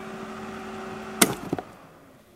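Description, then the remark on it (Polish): An electric kettle, its water already boiled, hums steadily with a faint rumble, then a sharp click cuts in, followed by a couple of light knocks as the noise settles. Moderately loud, with no voices. “Woda się zakodowała, to dalej hałasuje.”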